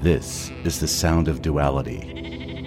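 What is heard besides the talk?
sheep bleating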